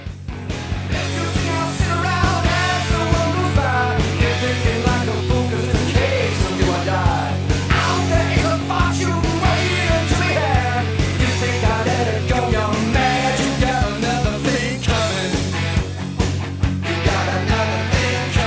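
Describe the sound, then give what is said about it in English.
A loud, driving heavy metal rock song with distorted electric guitar riffs over pounding drums and bass, playing continuously at full volume with no talking over it. “He rocks out really heavy.”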